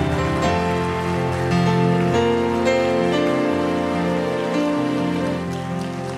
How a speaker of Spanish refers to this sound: Aplaudele fuerte.